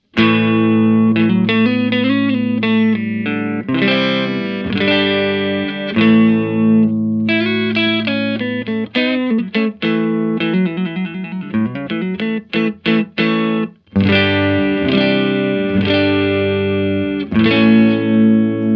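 A clean electric guitar plays through a Celestion Greenback speaker, strumming chords and picking quick single-note runs with bright, ringing harmonics, steady and fairly loud with no voices.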